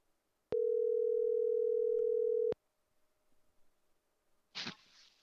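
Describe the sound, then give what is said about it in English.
A steady telephone dial tone hums loudly for about two seconds as someone calls back after accidentally hanging up, then cuts off, leaving faint background rustling and a short sharp burst of noise near the end. “Did I actually hang up on them? I'll call them back.”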